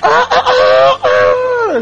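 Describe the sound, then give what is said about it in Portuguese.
A person at the back of a noisy group imitates a rooster crowing with a loud, drawn-out call in a few stuttering bursts, ending in a long falling wail, with no other sounds. “De repente, lá do fundo, parece um, um galo cantando assim.”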